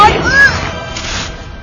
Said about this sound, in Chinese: 刚才积雪差点砸到你，多危险啊！